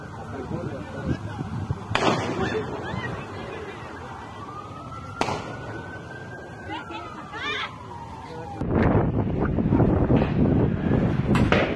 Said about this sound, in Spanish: Así se vivieron estos minutos de terror el sábado en Acapulco Guerrero. Se registró una fuerte balacera en la playa Manzanillo, en donde decenas de familias que se encontraban disfrutando en la zona, en mediaciones del Club de Yates La Marina